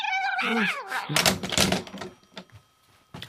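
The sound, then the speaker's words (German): Long John's cat friends caterwauling in a loud, wavering yowl that bends up and down in pitch, followed by a burst of harsh, noisy clatter and a few fainter scuffs and clicks. “Weil deine musikalischen Katzenfreunde Frau Sparbrots Blumenbeet genauso benutzt haben, wie du es benutzt.”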